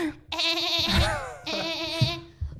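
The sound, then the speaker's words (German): A voice mimics the mating call of a ground-dwelling gecko from a Netflix animal documentary, two strained, bleating bursts, each wavering and nasal, separated by a brief pause; it sounds almost like a goat. “Und zwar äh, auch irgendwie so eine Netflix-Tierdoku, wo ein Gecko, meine ich, der im, im Boden lebt und als ähm, Lockruf halt irgendwie so ganz komisch, komische Geräusche macht.”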